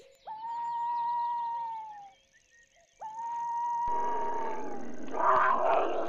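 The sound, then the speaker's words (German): A young tiger growls twice, each call a drawn-out, whining cry lasting about two seconds, fairly loud, with a rougher, noisier snarl rising at the end. “Der verlässt gerade seinen Wohnwagen mit dem süßen Tiger.”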